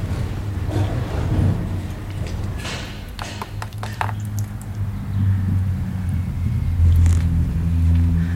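Countryside ambience recorded during lockdown, with a steady low rumble of passing cars, a few light taps and clicks scattered through the middle, and no one speaking.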